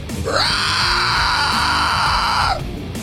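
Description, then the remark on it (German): A toad-like creature ridden with reins again lets out one loud, drawn-out shriek lasting about two seconds, swooping up at the start and dropping off at the end, over a low rumbling background. “Die Kröte ja. schreit erneut.”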